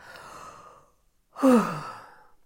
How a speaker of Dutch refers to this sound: En dan mag je nog een keer diep inademen.